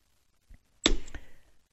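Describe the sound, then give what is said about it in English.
An arrow sound effect: a quick faint swish, then a sharp, loud thwack as it strikes, with a second smaller hit and a short ringing tail that fades out. No voices. “It is all in my book because I am trying to throw one last one last arrow against the enemies of our freedom.”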